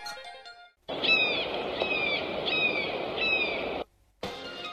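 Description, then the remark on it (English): A hawk calls four times in steady succession, each a shrill, descending cry, over a constant background hiss, then briefly cut off before the noise resumes. “Now, this is a hawk, like the battle hawk.”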